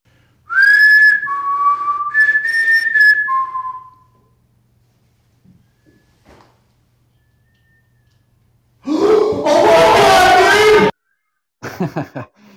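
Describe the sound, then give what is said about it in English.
A person whistles a short run of clear notes, some sliding up or down, in response to something, followed after a pause by a loud breathy, hissing burst and a brief final gust. “yeah, it's whistling.”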